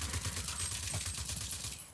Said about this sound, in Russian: А, вот какой-то выстрел прошел, пробил. Надо прям в голову.